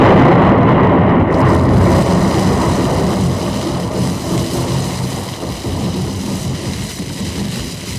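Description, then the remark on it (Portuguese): A motorboat slams into a wooden pier at the edge of a beach and explodes, a loud, sustained roar and deep rumble that fills the whole stretch and fades only slightly toward the end, with no voices. “choque com o pontão fez explodir o barco e matou a bactéria”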